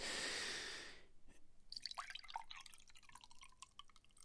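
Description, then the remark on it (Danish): Someone drinks water during a short water break: a brief breathy rush, then soft wet gulps, little liquid clicks and drips, with a quiet breath. No one talks. “Det var lige en kort vandpause.”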